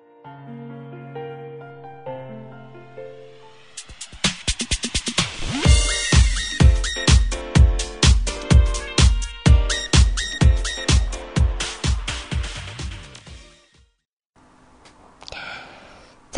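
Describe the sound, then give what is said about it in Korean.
A pop song plays as a listener request on a radio broadcast, opening with soft sustained synth chords before a driving beat with steady rhythmic kicks and bright layered instruments kicks in, then briefly drops out near the end. “자, 노래 들어볼게요.”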